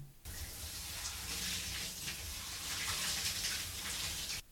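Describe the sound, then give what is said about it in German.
A steady rush of running shower water hisses evenly for several seconds, fairly loud, with no voices, starting and stopping abruptly; a professionally recorded shower sound from the Let It Flow app. “Hunderte professionell aufgenommene Sounds wie die Dusche”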